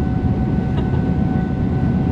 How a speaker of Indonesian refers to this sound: PT KAI tolong ya gitu kereta lewat sejam sekali kan, sejam setengah sekali kan